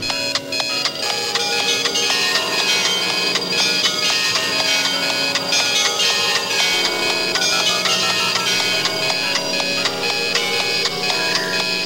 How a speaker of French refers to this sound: Mais heureusement, mon réveil a sonné.